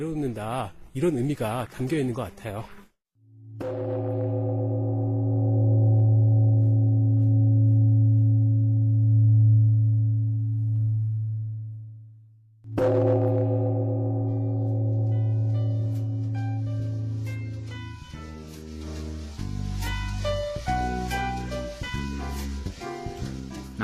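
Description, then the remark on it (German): A Buddhist temple bell is struck lightly twice with a wooden mallet. Each stroke leaves a clear, deep, booming ring that sustains and slowly fades. Brief talk comes before it and plucked tones follow. “Man hat mich angewiesen, die Glocke leicht zu schlagen.”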